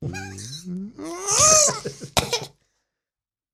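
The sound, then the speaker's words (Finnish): A strained, gliding vocal sound is followed by one sharp, fairly loud cough, then silence before another brief burst starts at the very end. “Vähän yskällä, yskähdellä rupeat loppumaan”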